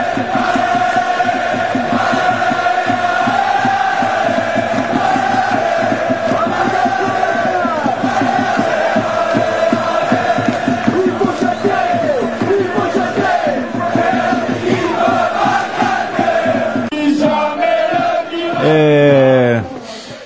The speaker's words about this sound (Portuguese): a torcida do Olympique cantando para Dupé?